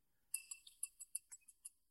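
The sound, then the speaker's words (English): A small glass bell, used as a timing signal at the end of 60 seconds, tinkles softly, about ten quick, bright, high-pitched strikes in a rapid irregular run lasting under two seconds, with no voices. “here demonstrated with a, a glass bell, if you like.”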